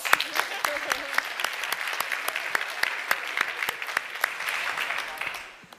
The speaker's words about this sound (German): Also erstmal Applaus.